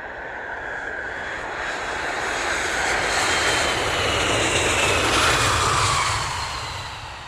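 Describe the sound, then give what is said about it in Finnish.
Airliner engines, just after the plane has reached cruising altitude, produce a steady, dense roar that swells gently toward the middle and eases slightly at the end. No voices or other distinct sounds break the drone. “Lentokone on nyt saavuttanut lentokorkeuden.”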